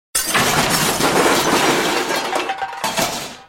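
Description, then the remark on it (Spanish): Plates shattering in a loud crash, with a dense spray of breaking fragments and clinking pieces that rattle on for about three seconds before quickly fading out. “Eso se debe a los portazos, tirar los cajones, romper los platos, acomodar los cubiertos de mala gana.”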